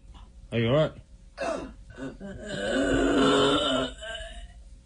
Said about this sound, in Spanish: unos youtubers eh, estadounidenses consumieron las sales de baño y se grabaron. Escuchen cómo suena alguien drogado con sales de baño.